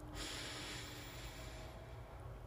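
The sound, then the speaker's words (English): A long, steady inhale drawn in through the nose during deep breathing, airy with a soft hissing rush that lasts about two seconds before tapering off. No one speaks. “But first, let's do some deep breathing. We're going to breathe in our nose”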